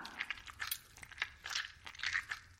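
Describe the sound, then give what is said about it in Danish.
Footsteps walking slowly across sticky ground in the dark, each step giving a crackling, tacky peel, about five steps in steady rhythm with no talking. “Uh, og klistret. Ja, pas på, at skoen ikke sidder fast. For vi skal lige gå et stykke nu.”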